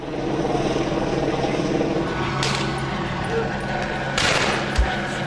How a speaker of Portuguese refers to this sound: Esse helicóptero, fogo.